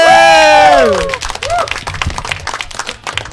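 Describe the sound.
A stand-up comedy audience bursts into applause and cheering as the next comedian is welcomed on stage: loud whooping voices sliding downward in pitch open the moment, then dense, steady clapping continues with scattered shouts.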